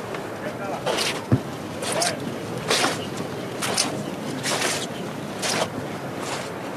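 Many sneakers of float bearers dressed in black uniform shuffle and scrape in unison on pavement, a steady rhythmic swish repeating roughly every second, moderately loud over a faint background murmur.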